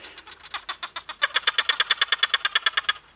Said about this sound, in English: There was definitely barking geckos, so it sounded more lively. You say barking geckos? Is that what you said? Yes. Yeah, well, they, they bark. are barking. They sound uh, more like clicky.